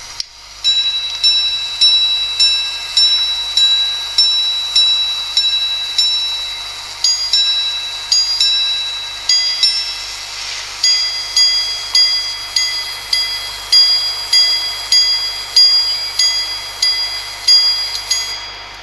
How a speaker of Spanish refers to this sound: después de tirar del pulsador del repetidor de minutos, podés determinar qué hora es